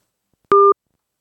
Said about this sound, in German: Das, die Telefonverbindung ist gerade abgerissen. Das funktioniert aber gleich wieder.